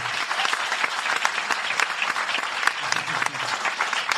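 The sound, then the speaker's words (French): A crowd applauds loudly and steadily in honour of the designer of their logo, dense clapping filling the whole stretch with a few sharper claps standing out, and faint cheering mixed in. “je voudrais aussi qu'on fasse du bruit très très fort”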